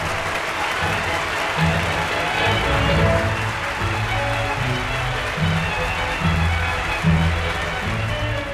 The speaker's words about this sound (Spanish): Como improvisado homenaje, la orquesta ejecutó la Jota de la Dolores, que el público escuchó en pie, prorrumpiendo al terminar en una calurosa salva de aplausos.